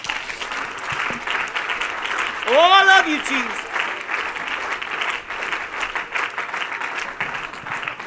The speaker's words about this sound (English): Why don't you take just a moment and clap your hands?